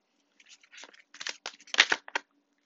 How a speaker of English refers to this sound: I am shuffling the Rider Waite Tarot. I cannot guarantee you'll hear me shuffling the whole duration of this reading, but based off of faith, we will go from here.